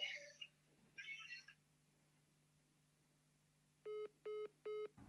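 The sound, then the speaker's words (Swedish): A phone line clicks and rustles as the call cuts off, then after a pause three short, evenly spaced beeping disconnect tones sound clearly over a faint steady line hum. “Samtalet bröts eller så la hon på luren.”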